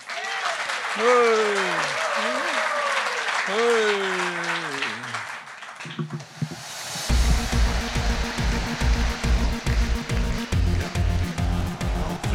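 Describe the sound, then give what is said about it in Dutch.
A voice speaks briefly, then an audience breaks into loud, sustained applause for columnist Jan Oudenaarde that lasts to the end, with a steady thumping beat underneath. “Mag ik een applaus voor Jan Oudenaarde.”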